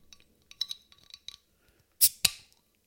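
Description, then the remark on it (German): A fizzy drink bottle is opened: a few light clicks and ticks from the cap, then two short, sharp bursts of hissing gas escaping. No one speaks. “Ja, das zischt.”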